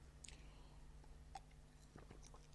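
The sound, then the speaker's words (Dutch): A quiet sip of water: a few soft wet mouth clicks and a faint slurp, with a short sharper click at the end and no talking. “En dan een, eh, even een slokje water.”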